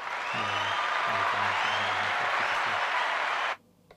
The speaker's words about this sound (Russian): Есть там какой-нибудь эффект? Хлопочек. А у меня есть... А я не то включила. Хлопки.